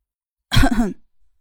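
A woman gives one short, loud throat-clearing cough, a rough burst with a brief voiced rasp, then quiet with no talking.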